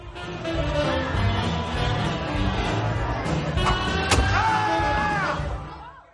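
A sharp crack, then a sudden drawn-out scream rising over lively jazz club music and crowd chatter, as a knife thrown by a police officer strikes a criminal's hand in a jazz club. The cry lasts about a second and sits loud above the band.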